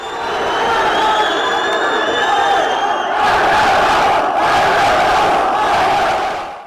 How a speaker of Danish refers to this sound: Og ja, det lyder voldsomt, men det her er simpelthen lyden fra en generalforsamling i en ellers så fredelig konferencesal.